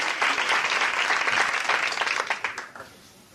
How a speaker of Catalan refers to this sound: Ja, ja el podeu aplaudir, ja s'ho mereix.